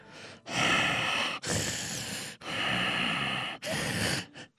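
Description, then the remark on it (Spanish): A voice imitates heavy, snorting breathing: four long, loud, rasping breaths in a steady rhythm, then two quick short puffs at the end. No talking. “Para esto usted ya se dio cuenta que yo soy el asesino porque estoy bufando.”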